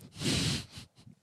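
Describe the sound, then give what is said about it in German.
A single sharp, explosive sneeze bursts out, followed by a few soft breathy sounds and faint rustles as it fades. “Gesundheit.”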